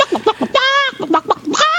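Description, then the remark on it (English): A chicken sound-effect button, played as a penalty for rambling too long, gives a loud, quick burst of short, choppy clucks, broken by a drawn-out squawk in the middle, with no talking over it. “you get the chicken for blathering too much.”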